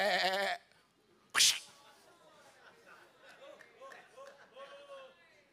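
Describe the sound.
A person loudly imitates a sheep, letting out one short, wavering bleat. A sharp burst of noise follows, then softer voices murmur in the background.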